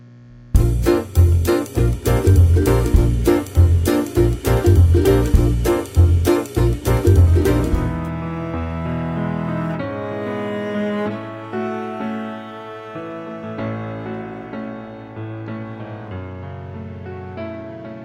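A pop song by a male singer, opening with about eight seconds of loud, punchy, rhythmic full-band hits before easing into a softer, smoother melodic section that gradually quiets.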